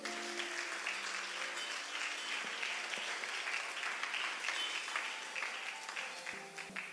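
An audience applauds steadily, a dense wash of many hands clapping at an even loudness for several seconds, with faint sustained tones beneath and no one speaking.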